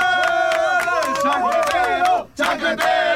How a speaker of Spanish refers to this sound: Ponme aplauso, chancletero.